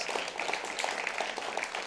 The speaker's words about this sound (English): And if we could, could we just give the board, the staff, the volunteers, everyone a huge round of applause?